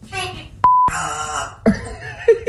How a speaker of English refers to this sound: now I've got, oh, I've got a filthy, foul mouth, disgusting, uh, depressed African grey parrot oh. uh, to share about uh, who. I mean, I'm sorry for his language, but this is what he said this week on the news. Jesse, that's rude. Say sorry.